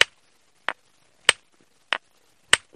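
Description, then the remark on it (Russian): Five sharp, bright clacks of stone striking a stone core, a flat pebble hit with another piece of stone, while knapping flakes; the tough raw material needs several blows and yields a small flake. Evenly paced about two-thirds of a second apart, each short and crisp with no talking. “Ну, наносим этот самый удар.”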